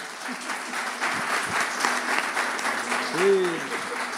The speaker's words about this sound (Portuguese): Nós o apresentamos em nome do Pai, do Filho e do Espírito Santo. Dê um aplauso bem forte ao Senhor.